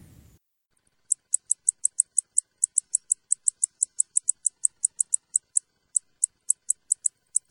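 A male primorska plenilka (predatory bush-cricket) calls alone with a steady series of short, high-pitched buzzy chirps, repeated rapidly and evenly for several seconds, with a few brief gaps in the rhythm.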